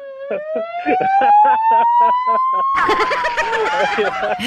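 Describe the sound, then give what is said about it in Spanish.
An ambulance siren wails loudly, its tone climbing slowly and then sliding down. Rhythmic chattering pulses sound over the first half, and a rough burst of noise joins partway through. “Este bribón te manda en ambulancia.”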